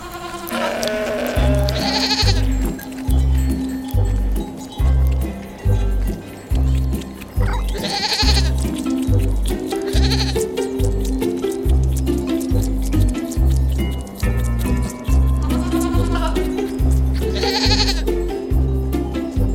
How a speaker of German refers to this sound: Unser Tier liefert leckere Milch, aus der man Käse machen kann. Und aus dem Fell unseres Tieres kann man schwarze, graue, weiße oder braune Wolle herstellen. Und, weißt du es schon? Welches Tier suchen wir? Ich sag es dir. Es ist die Ziege.